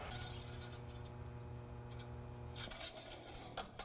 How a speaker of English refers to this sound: You're hearing the sounds of maintenance being performed on a school bus.